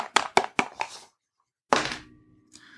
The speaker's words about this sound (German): Wir würfeln.